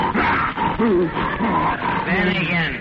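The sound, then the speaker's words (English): A man's voice imitates the MGM lion's roar with a rough, drawn-out growl, loud, lasting about three seconds with a few wavering rises in pitch. “that's the MGM lion.”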